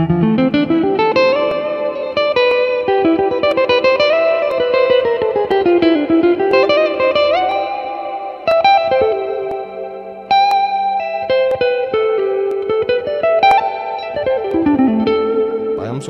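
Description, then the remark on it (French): An effects-heavy electric guitar runs up and down a short scale fragment in smooth, gliding phrases, loud, with a chorus-like shimmer and no talking. “On peut le faire sur n'importe quel fragment de gamme, admettons.”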